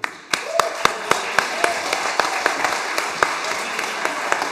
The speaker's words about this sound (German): Und auch einen großen Applaus für Team Hochbahn, die haben alles gegeben.